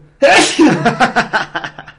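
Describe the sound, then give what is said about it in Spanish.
A loud sneeze bursts out suddenly, followed by a quick string of short, breathy puffs that gradually fade away. “Salud.”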